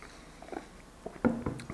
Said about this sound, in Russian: А, пора глотнуть чаечку.